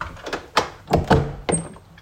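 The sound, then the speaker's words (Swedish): A few dull knocks on a door, about four thuds in an uneven cluster, moderately loud, with no talking. “Eh, Förlåt, nu knackar det på dörren.”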